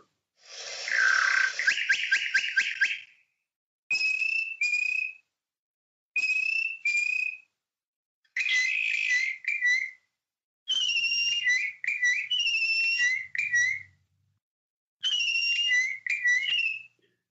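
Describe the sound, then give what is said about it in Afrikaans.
A bokmakierie bushshrike duet by two males singing to each other: loud, ringing whistled notes in quick repeated phrases, coming in about six bursts separated by short pauses, clear with no talking. “dit bring ons nou by die bok Makiri en hier is sy lieflike roep.”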